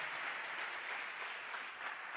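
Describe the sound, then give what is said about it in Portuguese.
An audience applauds for Jesus steadily, a dense, continuous wash of many hands clapping at an even, moderate loudness throughout, with no voices standing out. “Dá mais um aplauso a Jesus aí.”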